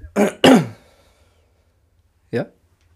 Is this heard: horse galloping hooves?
no